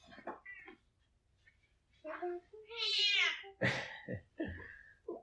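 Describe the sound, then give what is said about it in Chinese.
A cat on a quilt meows in a long, drawn-out, high-pitched wail, framed by several shorter, softer mews and chirps before and after it. “棉被上有一只猫咪”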